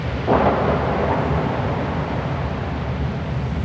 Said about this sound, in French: La tempête fait rage.